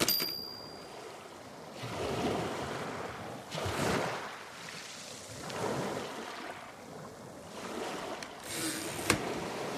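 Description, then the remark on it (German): Steady wind rushes over rolling sea waves at a small beach house, with surges of surf swelling and fading every couple of seconds; a broad, moderately loud wash with no voices. “Der Wind pfiff durch die undichten Fenster des kleinen Strandhauses, als wollte er den seit Jahren leerstehenden Räumen wieder Leben einhauchen.”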